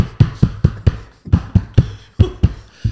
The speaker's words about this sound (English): Um, okay, you have been knocking sorry, sorry. because when you make a point, you go like this.